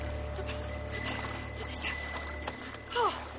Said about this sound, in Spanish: Toca el timbre de la bicicleta.